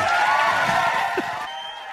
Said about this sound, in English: Hey, can you hear the music now? I can hear the music. I can hear the clapping. Okay, good.